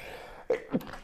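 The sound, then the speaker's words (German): Two quick sneezes in close succession, each a sharp, breathy burst with a strong low-pitched core. The second follows about a quarter second after the first, over a quiet background with no talking. “Ui, Gesundheit. Oh, Gesundheit.”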